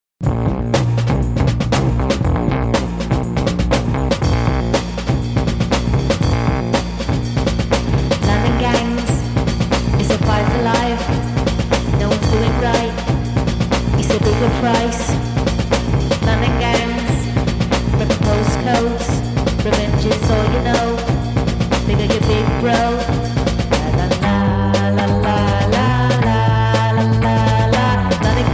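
Loud, dense rock music plays continuously with driving drums, heavy distorted guitars and a steady pounding rhythm, shifting to a sparser, punchier section near the end.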